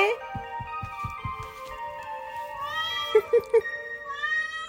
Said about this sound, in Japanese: にゃーん。